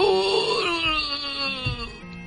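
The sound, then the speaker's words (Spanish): A dying cuélebre dragon's agonized groan as its jaws spew columns of fire: a long, loud, anguished moan that slides downward in pitch, with a low rumbling undertone and no talking. “El cuélebre dio sus últimos ronquidos agonizantes al tiempo que sus fauces arrojaban columnas de fuego falleciente.”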